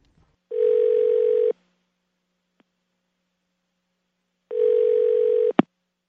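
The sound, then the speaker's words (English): Two steady, buzzy telephone line tones on a call to the Dial Song service, each about a second long and separated by a few seconds of silence, end with a sharp click like a receiver being picked up. No voices. “Thank you for calling our Dial Song service.”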